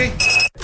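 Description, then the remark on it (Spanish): A Verisure home security alarm being activated before the door is closed, giving a single steady, high-pitched electronic tone that lasts about a third of a second and then cuts off, with faint low background sound around it. “Amor, activa la alarma, cierra la puerta y vamos, que se hace tarde.”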